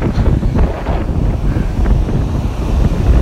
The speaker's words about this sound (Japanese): 今日は、えー、江ノ島からお送りしました、えー、まあね今本当にもう足元に波がこう来てもう危ない状況ですけど